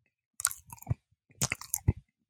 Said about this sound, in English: Why are you eating that banana so aggressively? That's the only way you're supposed to eat a banana.